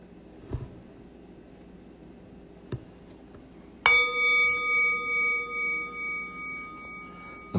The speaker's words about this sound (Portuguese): E quando eu convidar o sino a soar para encerrar esse período de meditação formal, não precisa se mexer ainda não, simplesmente fica quieta um pouquinho. A gente vai ficar um pouquinho mais em silêncio e eu vou convidar o sino a soar.